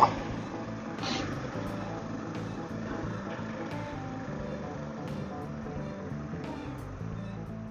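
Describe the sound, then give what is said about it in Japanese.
A car moves slowly, shifted just a few centimeters, its engine giving a steady, loud low rumble that fills the whole stretch without pause, with faint brief clicks on top and no one talking. “いやー、車の数センチ動かすって言ったわ。”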